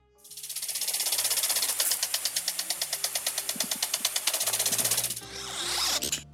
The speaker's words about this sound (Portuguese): com o som misterioso da semana passada, que estava bem difícil de adivinhar, que era um irrigador de jardim, aqueles negocinhos metálicos que ficam na grama girando, borrifando água para todos os lados.